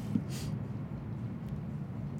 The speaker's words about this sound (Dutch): Zo joh, komt hier zo dus ook even een vliegtuig overvliegen. Het is geen privéjet zo Gaat hard.